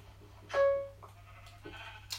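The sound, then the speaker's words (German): A single sheep in a video game bleats once, a short wavering tonal baa at moderate loudness, followed by quieter faint rustling and clicks against a steady low hum. “Junge, dieses, geh doch mal weg, du Schaf”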